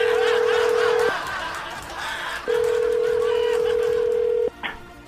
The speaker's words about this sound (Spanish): ok, vamos, a la línea, vamos a marcar.